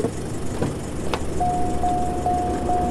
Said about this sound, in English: I'm putting the keys in the ignition and I'm uh, getting getting the Ute